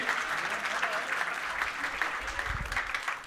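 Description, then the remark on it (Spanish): An audience claps steadily for a few seconds for volunteers, a dense wash of many hands applauding together, with no voices standing out. “Un aplauso a los voluntarios.”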